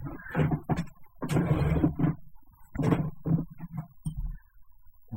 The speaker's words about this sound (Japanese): 椅子がギーギーうるさいですね。